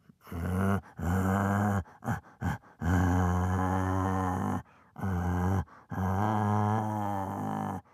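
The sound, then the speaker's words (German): A man who can imitate over 200 animal voices imitates a bear, producing a series of long, deep, rumbling growls with brief pauses between them, loud, with no speech. “und ein Bär.”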